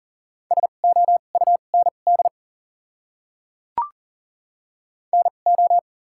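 Rapid Morse code tones at about 40 words per minute, sending common words with doubled character spacing: a steady mid-pitched beep keyed in quick dots and dashes, a pause broken by a single sharp click, then another short burst of code.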